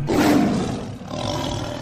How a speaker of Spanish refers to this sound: Ahora, si solo escuchas el rugir de un león